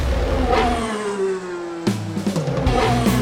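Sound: car engine revving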